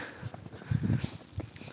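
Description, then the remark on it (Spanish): Several soft, low thuds of a person's footsteps, slightly dragging, land in an uneven rhythm, fairly quiet, with no one speaking. “Las pisadas de la gente.”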